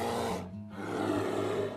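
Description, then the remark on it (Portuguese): A person imitates a bear's roar: a loud, raspy growl that dips briefly after the first half-second, then swells back into a longer rumbling roar. “ruginariam.”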